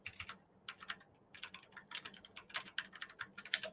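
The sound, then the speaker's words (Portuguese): Rapid, uneven clicking of keys on a computer keyboard whose keys are intermittently failing, in bursts of quick taps with brief pauses, over a low steady hum and no voices. “Meu teclado tá parando, cara. Algumas teclas aqui tá parando do nada.”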